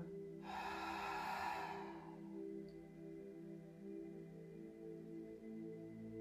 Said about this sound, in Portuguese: Agora inspiramos profundamente e observamos a pausa. então expiramos pela boca.